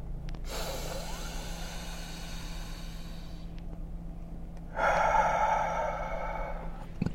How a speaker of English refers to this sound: real deep breath. Hold it, make it hurt, and then release.